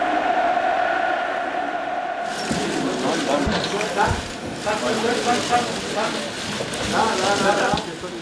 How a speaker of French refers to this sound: Les flashs crépitent.